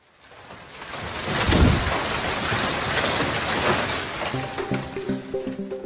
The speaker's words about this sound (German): Eine Landstraße in Oberbayern. Tennisball große Hagelkörner donnern auf die Autos. Die Wucht des Hagels ist so groß, dass Heckscheiben in tausend Stücke zerbrechen.